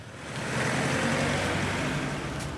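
A tractor's engine drones steadily as a worker drives it one morning at a biogas plant, hauling chopped maize from the silo into an open container; its broad rumbling noise holds constant with no voices.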